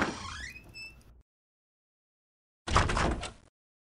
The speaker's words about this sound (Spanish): Ella ha cerrado la puerta de mi cuarto.